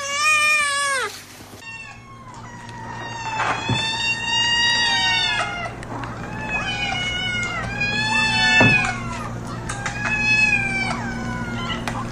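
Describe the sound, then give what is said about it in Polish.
A mother cat calls her hungry kittens to food; several hungry cats meow insistently and loudly, their drawn-out, wavering cries overlapping in repeated bursts over a steady low hum, with no one speaking. “To właśnie jest ta scena, o której mówił Bruno, cały czas mówiąc nam dzisiaj o głodnych zwierzętach, że tu cała zgraja głodnych kotów jest.”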